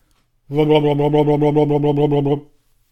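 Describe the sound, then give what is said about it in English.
A sustained voiced tone wobbles rapidly up and down for about two seconds, a loose, fluttering vocal sound made by shaking the jaw as a vocal warm-up exercise, fairly loud with no words. “It's also a great way to let your voice make a noise, and it might sound something like this.”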